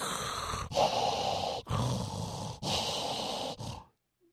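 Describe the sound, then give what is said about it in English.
Loud, heavy breathing: about four long, rough breaths in steady succession, each separated by a brief pause, with no talking, then silence at the end. “And I realize, I, I catch myself, I go, oh my God, they can hear me breathing.”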